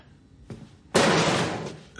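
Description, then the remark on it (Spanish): A muffled thump, then a heavy kick slams into a wall, loud, followed by about a second of rattling, crashing noise that slowly fades. “Eric da una patada a una pared.”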